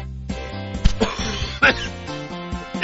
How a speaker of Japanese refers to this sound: というね、収録中に咳をするというね、ひどい番組にあのなっておりますけども